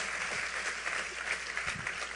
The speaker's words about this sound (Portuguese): Aplauda o Senhor pela vida de Uriarão.